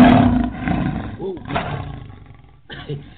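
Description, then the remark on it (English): A lion lets out a loud, deep roar right at the start, then rumbling growls trail off and fade over a few seconds, with a brief low grunt near the end. “So go ahead and give it to me, roar.”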